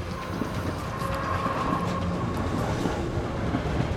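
A departing train runs along the rails with a steady, dense rumble and a faint rhythmic clatter of wheels, plus a thin high whine, holding constant for several seconds with no voices.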